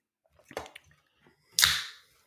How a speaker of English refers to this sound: Just pop the top on a Busch Light, man. Did you you drinking another pumpkin ale? I heard you pop something a little earlier. Nope, Busch Light.